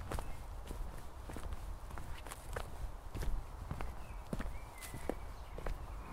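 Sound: footsteps walking through a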